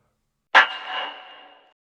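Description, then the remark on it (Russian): A single sharp metallic ping of a puck striking a hockey goal post, ringing out clearly for about a second before fading, with no voices. “Звук штанги, и я начинаю.”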